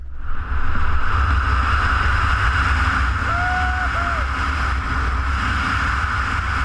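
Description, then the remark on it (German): Loud, steady rush of wind roaring past a wingsuit flyer who has jumped from a huge rock and is diving into a valley at high speed, with a deep low rumble, broken by a brief thin whistle partway through; continuous, with no talking. “und du donnerst da ins Tal mit einem Affenzahn, der Wind pfeift.”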